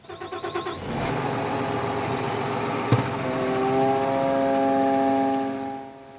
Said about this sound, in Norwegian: Den tar tak rundt treet og kabrer ned, og kvister og kabrer opp i riktige lengder. og alt vi gjør fra styrehuset. Nå har han starta opp den svære beltemaskinen